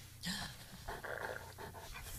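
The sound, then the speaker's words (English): A dog wearing a cone pants in quick, breathy bursts, a steady run of huffing breaths over a low background hum, with no one talking. “I wonder if that dog's been picking at his ass.”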